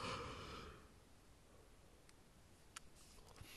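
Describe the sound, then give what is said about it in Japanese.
A single breathy yawn fades out within the first second, leaving near-silence broken only by a couple of faint clicks. “あくび出しちゃったよ。”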